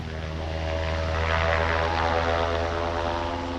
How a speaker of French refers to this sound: L'une de ces entreprises est propriétaire d'une base aérienne toute proche. Un hélicoptère tourne dans le ciel.